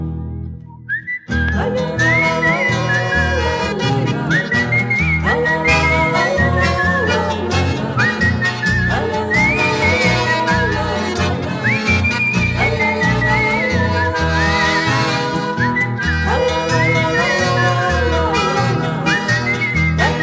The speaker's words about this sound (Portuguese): Eu trazia sem fastio, saudando a estrela boieira, uma coplita campeira bem floreada no assobio